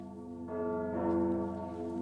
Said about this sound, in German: Die Stimme ihres Sohnes Archer dringt in genau dem Moment an ihr Ohr, als die Glocke läutet.